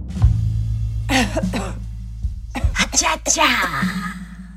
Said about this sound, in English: My cough.